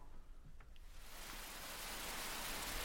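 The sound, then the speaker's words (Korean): A summer rain shower comes on over a sports field on a sweltering Saturday, its broad hiss swelling in after about a second and then pouring steadily and fairly loudly for the rest of the moment, with no voices. “체육관에서 훈련하던 아이들이 너나 할 것 없이 비 오는 운동장으로 뛰어들었어요.”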